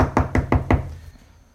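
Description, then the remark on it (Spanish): Four quick, evenly spaced knocks on a wooden bedroom door, loud, with a hollow woody thud, followed by fading silence. “pero sabes que no es afuera porque afuera la reja es de metal y tú estás en tu cuarto que la, reja, que la puerta es de madera y sonó como madera.”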